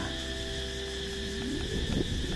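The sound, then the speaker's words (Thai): Cicadas buzz in a steady, unbroken drone outdoors, holding a high shrill tone throughout, with a low rumble of wind underneath and a faint rising sound near the end. “อืมสายลม เสียงจักรจันวิวข้างหน้ามันก็เป็นอยู่เช่นนี้ เป็นอยู่เช่นนั้นเอง เป็นตามความเป็นจริงอยู่ตลอดเวลา”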